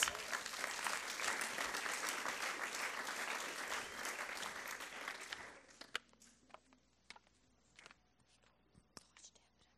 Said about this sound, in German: auf die Bühne bitten mit einem Applaus, dass sie uns das erzählen.